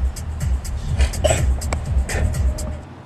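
A man spits out of a car window, a short wet burst over the steady low rumble of a moving car, with a few other brief scuffs and rustles around it.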